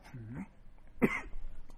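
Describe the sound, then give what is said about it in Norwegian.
A man gives a short throaty rasp, then one sharp cough, then a few faint, scattered follow-up huffs; no one is talking. “Er du ferdig med å hoste nå?”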